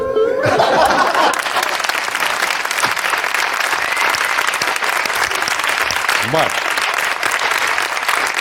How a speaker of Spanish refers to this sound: Aplauso de cortesía para este recitado. Aplauso de cortesía.